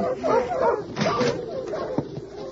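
Several sled dogs bark and whine as a young girl unharnesses the dog team in front of a wooden cabin after days of snow, short yelping barks breaking through a steady run of higher whimpers and whines over a busy, noisy background.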